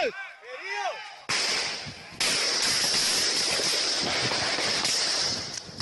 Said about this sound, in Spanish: Esto que ustedes escuchan, la angustia, los gritos, los disparos, fue lo que se vivió hace cerca de 48 horas en algunas veredas, una de ellas Puerto Rico, cerca de Tumaco, uno de los principales puertos sobre el Océano Pacífico,